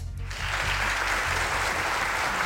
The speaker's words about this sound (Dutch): Dank u, dank u, dank u voor het applaus. Ja, wij zijn ook enthousiast.